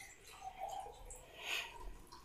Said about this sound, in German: Und jetzt hört ihr ganz kurz im Hintergrund, wie sich mein Glas füllt.